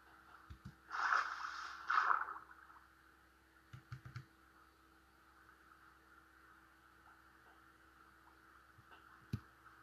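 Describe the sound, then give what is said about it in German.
A video game character swims all the way through water to the other bank: two short, hissy splashing bursts close together near the start, then a few faint clicks over a quiet background. “Da muss ich halt mal komplett durchs Wasser schwimmen.”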